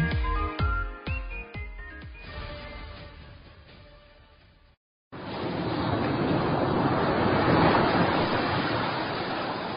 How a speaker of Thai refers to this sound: ถ้าเอาเสียงคลื่นที่หาดทรายแก้วเข้าเครื่องแปลภาษา เขาคงจะบอกเราว่า มาเที่ยวที่นี่สิ หาดทรายขาว น้ำทะเลใส รอคุณอยู่แล้ว